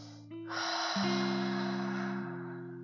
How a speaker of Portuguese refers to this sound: Ao exalar o ar, libere todo o ar, como se você estivesse fazendo um bafinho no espelho.